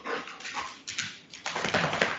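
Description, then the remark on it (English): A dog lets out a few short barks mixed with whimpering yips, coming in uneven bursts over a couple of seconds with no talking, as the dogs run up curious about who their owner is speaking to. “dogs are very curious who I'm speaking to now.”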